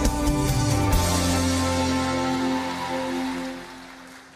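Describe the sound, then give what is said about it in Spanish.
An audience applauds to receive the word of God, a dense, steady patter of many clapping hands over sustained musical tones. The clapping holds for several seconds, then thins and fades toward the end. “Recibamos con un fuerte aplauso la palabra de Dios.”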